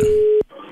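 A steady electronic telephone tone, as someone phones a customer service line, holds for under half a second, then cuts off with a sharp click, leaving a faint hum behind. No one speaks.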